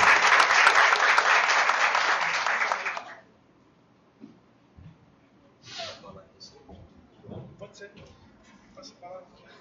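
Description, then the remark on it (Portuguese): An audience breaks into loud, dense applause as the vice-president of ANACRIM Pernambuco is invited to join the panel. The applause lasts about three seconds and then stops abruptly, leaving quiet murmurs and faint voices. “Uma salva de palmas.”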